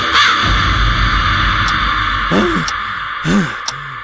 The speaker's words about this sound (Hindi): और वो कौआ काव काव करे जा रहा था उसकी काव काव की आवाज तेज होती जा रही थी और तेज होते होते इतनी बढ़ गई इतनी तेज आवाज गूंजने लगी कि सचमुच